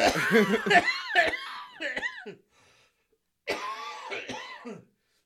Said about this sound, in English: Oh, that's a good cough.